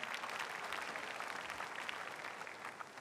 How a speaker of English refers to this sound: Once again, let's clap for Jesus Christ.